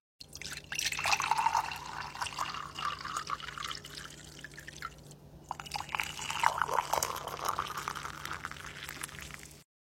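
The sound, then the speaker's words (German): Water is poured into a cup to make tea twice, first cold water, then hot water; each pour a steady splashing stream lasting several seconds, separated by a brief pause; the second, hot pour sounds slightly brighter and fuller. “Und ich spiele jetzt einmal zwei T-Geräusche ab. Eins ist mit kaltem Wasser, das andere ist mit heißem Wasser.”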